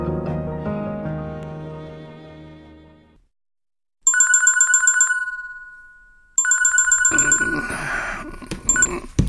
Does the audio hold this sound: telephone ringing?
yes